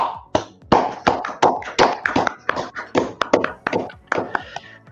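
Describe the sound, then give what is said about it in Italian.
Applause for the audience at the end of a live broadcast, from a small audience: a steady stream of sharp, irregular hand claps, fairly loud and continuing for about five seconds with no voices over it. “facciamo anche un applauso a tutto il nostro pubblico che è stato qui con noi fino a quest'ora.”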